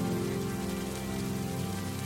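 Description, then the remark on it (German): Light rain begins to patter steadily onto a surface as a thunderstorm moves in, a soft continuous hiss of small drops with no voices, holding an even, moderate level throughout. “Doch dann zieht ein Gewitter auf und es beginnt langsam zu tröpfeln.”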